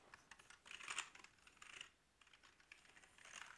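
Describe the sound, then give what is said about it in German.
Rapid typing on a modded computer keyboard, a steady stream of crisp keystrokes with a few louder bursts and brief pauses, with no voices present. “Diese Tastatur, diese Ich habe sie gemoddet.”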